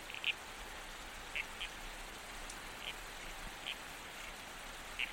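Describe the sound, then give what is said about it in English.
A male red-crowned toadlet, a frog, croaks to attract females: short, sharp calls repeating at irregular intervals, about six brief chirping croaks over a soft steady hiss of night ambience, fairly faint. “The male toadlet is croaking to attract female attention.”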